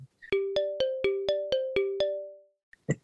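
A bell rings eight quick, evenly spaced strikes, each bright metallic tone overlapping the last before the ringing fades out; a brief rustle and a short voice follow.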